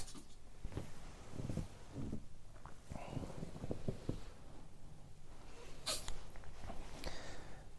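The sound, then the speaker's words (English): A small animal, likely a dog, snorts and sneezes in short, sharp bursts scattered over several seconds, quiet, with faint shuffling and rustling between them. “Well, you do snort that stuff. It's going to make you sneeze, isn't it?”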